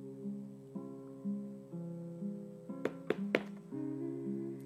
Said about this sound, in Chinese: 门口传来了急促的敲门声，一定是急性子的安娜来了。艾莎心想。